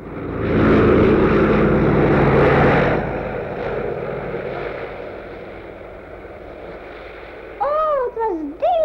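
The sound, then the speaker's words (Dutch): A loud, droning airplane engine roars for a few seconds, then settles into a quieter, steady hum. Short wavering voice-like sounds break in near the end. “Ja, dat vliegtuig was nou niet bepaald een opwekkend gezicht.”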